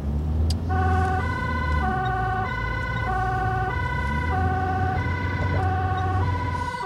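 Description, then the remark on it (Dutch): A loud ambulance siren, switched on while driving urgently to a call, wails in a steady two-tone pattern, alternating high and low notes every half second or so, over a continuous low engine rumble from the moving vehicle. “ik ga hem eh, nu aanzetten, dus het wordt, eh, qua geluid wordt het even lastig zo Maar we moeten er even met spoed eh, naartoe.”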